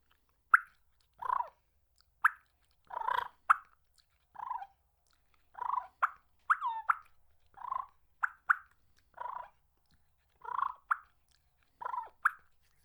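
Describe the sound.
A competition turkey call produces a series of sharp clucks mixed with short rolling purrs, about a dozen bursts spaced in an uneven rhythm, clear with no talking.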